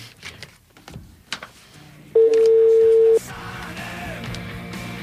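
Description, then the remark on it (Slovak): A telephone rings once: a loud, steady electronic tone at a mid pitch lasting about a second, set against quiet background clatter and a low murmur. “A no, podľa zvonení to bude hezký devče.”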